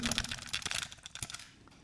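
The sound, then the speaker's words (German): An audio cassette handled up close, held up to the microphone: a rapid series of sharp plastic clicks, taps and rattles, bright and clattering, with no voices, fading slightly toward the end. “Also so viel kann ich verraten, eine Schallplatte, eine LP ist es nicht. Es ist eine Kassette.”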